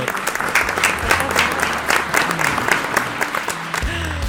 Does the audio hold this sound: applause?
yes